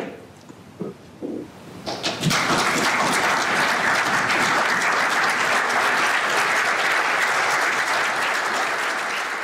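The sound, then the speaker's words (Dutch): After a couple of seconds of faint murmur, members of the Dutch parliament stand and burst into sustained, loud applause for Zelensky after his speech, a dense steady clatter of many hands clapping that continues without pause to the end. “Uh, eh, parlement, parlementariërs gaan staan eh, en die klappen, die applaudisseren.”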